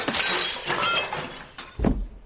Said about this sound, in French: Il mit un coup d'épaule dans la fenêtre, la faisant voler en éclats, puis il sauta à terre.